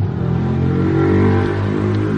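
A car engine revs and accelerates in the street, its droning pitch climbing steadily; loud, with no voices over it.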